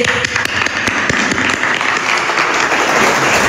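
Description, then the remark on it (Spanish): A crowd applauds steadily, a dense wash of many hands clapping at once, fairly loud and sustained throughout with a few sharper individual claps standing out early on. The applause honours the women of Santander at an event on women's economic and social development. “Así que mujeres, un aplauso para ustedes.”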